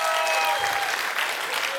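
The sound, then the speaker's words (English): An audience claps steadily, a dense wash of many hands applauding at a fairly loud, even level for the whole stretch, with no one speaking over it. “No, you, you want to hold your clap because what I was going to say next.”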